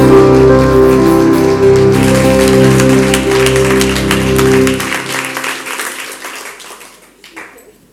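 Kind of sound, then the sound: crowd, audience applause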